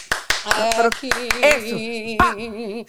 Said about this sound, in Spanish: Si me tranco, hacer un ruido, un ruido, un aplauso fuerte. Vamos, cualquiera de ustedes dos, ¿quién a aplaudir? Aplauda, alguien aplauda.